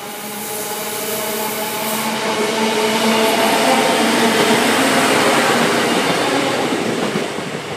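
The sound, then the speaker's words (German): A VT 628 diesel railcar pulls out of Biedenkopf station in Germany, its engine droning with steady harmonic tones that build as it accelerates, a continuous loud rumble with no one speaking. “Dort ist die Kurhessenbahn der Betreiber und dort fuhr bis vor kurzem noch die Bau Baureihe 628 und wir schalten jetzt um in den Bahnhof Biedenkopf. Dort hat jetzt gleich ein VT 628 Abfahrt.”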